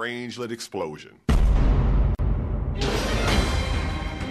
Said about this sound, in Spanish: por lo que tendrás una burbuja extraña emanando de un lugar y a la vez produciendo más y más energía, lo que hará que se creen más Strangelets hasta que el planeta entero se consuma por una explosión de Strangelets.